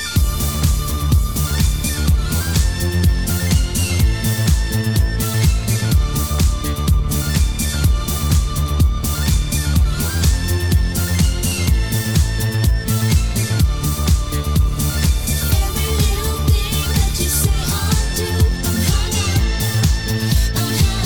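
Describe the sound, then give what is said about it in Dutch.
A loud, driving dance track with a steady pounding beat and bright, repeating synth riff, playing continuously with no voices, the kind of intro built around a sampled disco hook. “principe wat je hoort is dat er een sample in zit van … van …”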